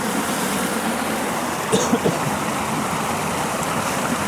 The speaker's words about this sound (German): Der will noch mehr Wassergeräusche für euch. Als hättet ihr noch nie ein Wasser gehört.